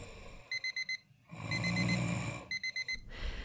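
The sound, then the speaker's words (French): A neighbour's old clock radio alarm, heard through the walls of a small sixth-floor studio in a Paris apartment building at about 5 a.m., beeps insistently in quick bursts of four sharp electronic tones, two groups repeating with a low rumbling noise filling the gap between them. “Comme tous les matins, le bruit du radio-réveil hors d'âge de son voisin traverse les murs.”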